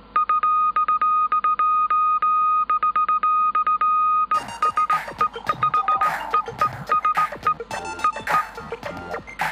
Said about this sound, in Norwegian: Og blant annet når han sendte peilesignaler til hvalbåtene fra kokeriet, så hørtes det ut på denne måten her.